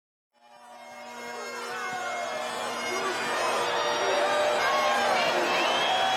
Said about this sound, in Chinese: Maggie 披着 Frankie 给她的绿色战袍，站上了拉斯维加斯的冠军拳台，观众都在为他欢呼。